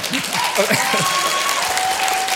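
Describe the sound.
An audience applauds in a dense, steady wash of many hands clapping that lasts throughout, fairly loud, with a voice briefly speaking underneath near the start.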